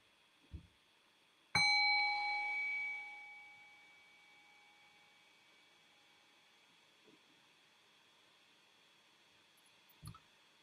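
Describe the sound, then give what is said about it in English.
A single meditation bell is struck once at the end of a brief guided meditation, ringing out clearly with a long shimmering tone that slowly fades, with a few faint soft knocks before and after. “so in the next breath or two, I'll ring the sound of the bell and bring us back into a conversational space.”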